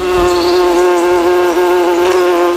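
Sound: bee swarm buzzing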